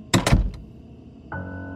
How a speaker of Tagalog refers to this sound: Binuksan ko ulit ang mga ilaw at pumunta ako sa banyo na nasa kanan at sinara ko kaagad ang pinto.